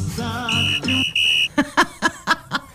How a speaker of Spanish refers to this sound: Ay, silbatito.